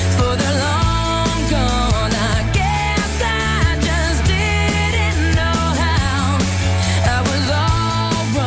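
A mid-2000s pop song plays loudly and continuously, with a sung vocal melody over heavy bass and a steady beat, and no one talks over it.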